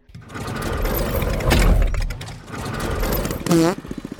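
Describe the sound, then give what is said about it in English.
A loud engine of a bathtub car in a race rattles and roars steadily, then revs up with a sharp rising whine before sputtering into choppy pulses at the end. “I couldn't hear you over the sound of my engine beating you.”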